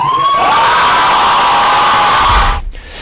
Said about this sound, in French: Et donc là, comme vous pouvez l'entendre, c'est l'explosion de joie dans la, dans la salle. Tout le monde est fou parce que, et voilà, on vient d'apprendre. Donc il y aura un nouveau fan meet en 2019.